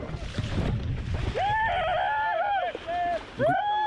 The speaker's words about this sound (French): Parce que le son là, les kayakistes ils sont en mer. Il a sa GoPro.